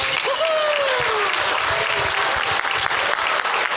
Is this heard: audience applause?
yes